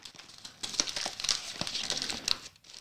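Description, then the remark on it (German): Busy crinkling and rustling as a box of baked cheese snacks marked 'Lift to Open' is opened and the silver plastic bag inside is handled, with irregular sharp crackles over about three seconds and no talking. “Hier steht Lift to Open. Ja, dann lift mal.”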